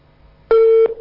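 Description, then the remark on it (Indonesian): A loud, steady electronic telephone tone starts abruptly midway and holds for about a third of a second, then a brief lower continuation follows. It is a busy signal as a caller's line to a call-in show with an Ustaz is cut off. “Ya, terputus. Silahkan dicoba kembali.”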